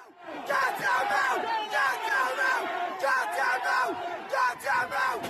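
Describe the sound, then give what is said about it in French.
A rioting crowd of several hundred people, gathered near the site of a knife attack in Ireland, shouts and yells continuously, many overlapping voices forming a loud, dense roar with surges of louder cries throughout. “Plusieurs centaines de personnes s'étaient réunies à proximité du lieu où se sont déroulés les faits, un quartier où vit notamment une population immigrée.”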